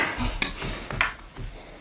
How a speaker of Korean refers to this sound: 내가 거실에 매트리스 필 테니까 넌 찻잔하고 접시 좀 씻어줄래?